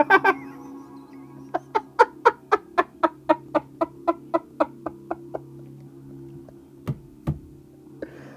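A rooster clucks in a quick, steady run of about a dozen sharp calls, fairly loud, followed by a pause and a couple of scattered knocks.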